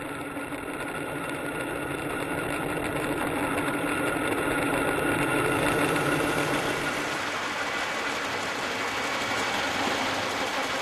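A heavy grinding machine drones steadily against stone, a continuous loud mechanical whir with a gritty, buzzing edge that holds unbroken for the whole stretch, close by and with no voices.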